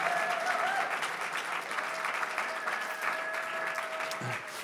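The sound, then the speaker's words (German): A crowd applauds the projector team steadily, a dense wash of many hands clapping at an even level for several seconds, with a faint sustained tone running underneath. “Ein, ein Applaus fürs Beamer-Team, die sind richtig gut.”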